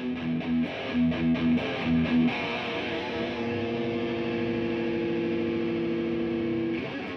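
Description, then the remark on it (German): A heavily distorted electric guitar played through an Engl tube amplifier plays a few choppy, chugging chords, then rings out into a long, sustained overdriven note. It's loud and has no voices. “Vornehmlich werden Engel benutzt schon im Hardrock, im Heavy Metal Segment in den extremeren Musikrichtungen”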